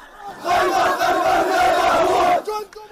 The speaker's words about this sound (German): For a while in Gaza, the sound of mourning was everywhere. The sounds of sadness and anger.